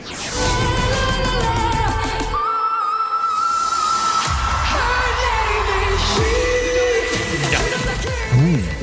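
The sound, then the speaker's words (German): A female singer holds a piercing, very high whistle note in a Eurovision Song Contest entry over a loud pop backing track; the band drops away briefly mid-note, leaving the sustained tone nearly alone before the music crashes back in. “Whistle Note, eine Note, die so hoch ist, als wäre sie fast gepfiffen.”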